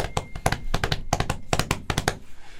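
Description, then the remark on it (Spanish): A sound-effects artist's hands tap out quick triplet beats on a hard surface, mimicking the galloping hoofbeats of a running horse in a steady rhythm for a few seconds, with no talking. “Y entonces corría el caballo.”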